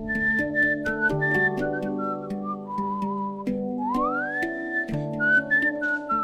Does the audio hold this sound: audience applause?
no